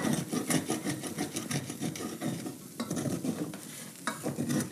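Vegetables sizzle in a hot pot while a spoon scrapes and stirs them in quick, repeated strokes, fairly loud, with no talking.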